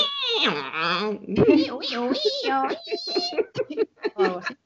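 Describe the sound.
A person vocally imitates a 1997-era dial-up internet modem connecting: loud, warbling, pitch-sliding squeals and beeps for a few seconds, ending in choppy bursts.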